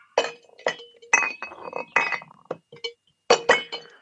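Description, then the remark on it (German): Glass bottles, including a bottle of Hirschkuss Bavarian herbal liqueur, clink against each other at a bar in a quick, irregular series of bright, ringing knocks, with a sharp double clink near the end and brief pauses between. “Der steht hier übrigens eine Flasche Hirschkuss.”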